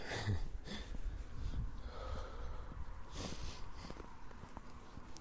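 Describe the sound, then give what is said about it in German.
Heavy, labored breathing, a few loud breaths and snorting inhales as someone catches their breath, with no talking. “Und da ist es einmal, ich muss kurz wieder schnaufen, es tut mir leid.”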